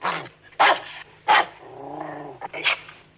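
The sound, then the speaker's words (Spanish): A small dog growls low and lets out several sharp barks in quick bursts, with rumbling growls between them, alone without any talking. “Los niños miran alternativamente a ella y al perrito, asombrados de que se entiendan.”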